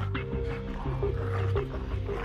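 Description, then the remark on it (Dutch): The largest wolf of a pack of about eight growls angrily as it comes nearer, a low, continuous rumbling snarl that stays loud for a couple of seconds with no talking over it. “De grootste van de roedel kwam naderbij en begon nijdig te grommen.”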